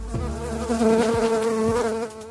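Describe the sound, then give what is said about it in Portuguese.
A mosquito buzzes in a steady, droning whine that holds for a couple of seconds, its pitch wavering slightly, with no voices present. “Tomar vitamina B pode afastar o mosquito, sim, mas isso não dura muito e também irá variar de acordo com o metabolismo de cada pessoa, podendo até não ter efeito algum.”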